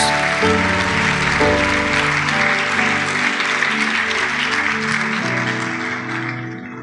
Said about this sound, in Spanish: un aplauso Jesús.